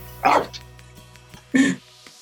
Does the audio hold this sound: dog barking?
yes